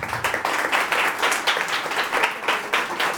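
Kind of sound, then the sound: crowd, audience applauding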